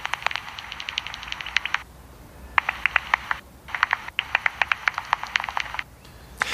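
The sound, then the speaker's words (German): Bat calls heard through a small green handheld bat detector held up in the air on a bridge: bursts of rapid, dry clicking and popping over a steady hiss, stopping briefly then resuming in irregular volleys, fairly loud, with no talking. “Ich hole mal den Fledermausdetektor raus.”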